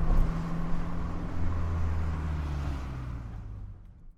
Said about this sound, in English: We stop the car in a lay-by at the Parco della Rimembranza.